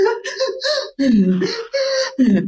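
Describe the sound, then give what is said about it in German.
A voice demonstrates sigh breathing through the nose, imitating a child's sobbing: four or five halting, whimpering vocal bursts broken by quick catches of breath, fairly loud, with no other sounds around it. “Weil das quasi dieses Seufzern, dieses Weinerliche ist, wenn Kinder weinen.”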